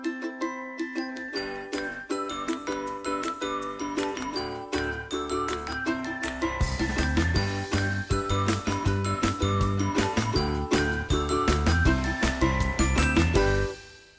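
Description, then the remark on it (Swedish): A short musical jingle played between segments, with bright, tinkling bell-like tones over a steady rhythmic beat, bass filling in after a few seconds, then an abrupt ending. No voices, just the tune playing alone. “Så hör ni vignetten så stäng inte av podden utan då kommer nästa gäst.”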